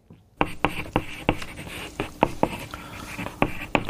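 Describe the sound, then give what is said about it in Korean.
Crisp scratching of a pencil writing on a hard writing board, with sharp taps and strokes repeating in an irregular rhythm for a few seconds, no voices. “아, 연필로 지금 필판 위에다가 예, 필기하는 소리입니다.”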